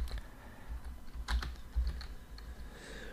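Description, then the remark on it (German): Quick, irregular keyboard typing as someone types a search for "Bocklins Mattel", a burst of clicking keystrokes with a few louder taps, no voices present. “Ich gebe jetzt Bocklins Mattel ein.”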